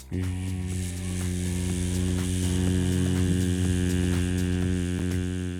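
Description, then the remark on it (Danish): A voice imitates the steady hum of a cooker hood, holding one continuous, buzzy drone fairly loud for several seconds without a break. “Nu havde jeg ikke nogen m så jeg blev nødt til at lave lyden selv.”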